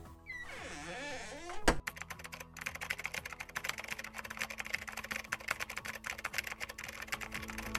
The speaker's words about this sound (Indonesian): Wah, semuanya lagi sibuk ngetik.